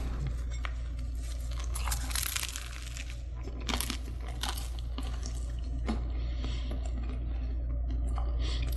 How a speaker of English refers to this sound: Well, I should be done chewing this by after Thanksgiving, so that's good. Man, this is insanely dry.